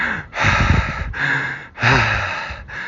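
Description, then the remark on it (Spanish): Heavy, agitated breathing of a man walking along a street, several loud rasping inhales and exhales in quick succession with brief pauses between, breathy and noisy with no talking. “con este profesor tan genial que soy yo, que está paseando en este momento por la calle y, puedes escuchar mi respiración agitada.”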